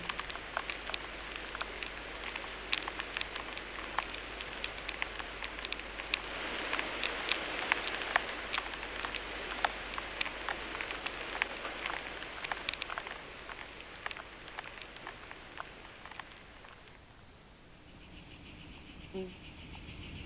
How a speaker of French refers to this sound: le ver qui mange une pomme.